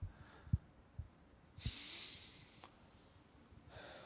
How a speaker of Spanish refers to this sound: tomando ahora una respiración profunda.